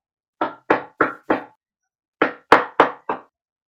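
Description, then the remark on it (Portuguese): Gentle knocking on a wooden door: two quick sets of four evenly spaced raps, separated by a short pause, clear with no voices. “Não, ele tava, ele tava esmurrando, aí a pessoa tá ali delicadamente dando toquezinho na madeira.”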